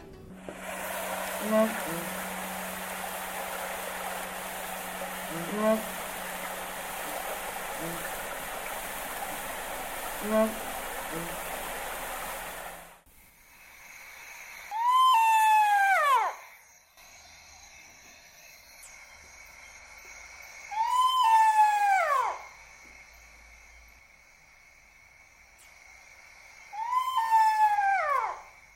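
Pel's fishing owl: a few deep, spaced hoots over a steady rushing background, then three loud, high, wailing howls that rise and fall, repeating about every six seconds.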